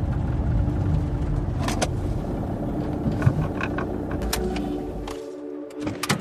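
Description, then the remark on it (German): A car engine idles with a steady low rumble and a few mechanical clicks, then the engine is switched off as the car is parked near the A3 motorway by the Molkenbrunnen forest area, leaving quieter cabin sounds. “In der Nähe der A3 parkt Jens das Auto und stellt den Motor ab.”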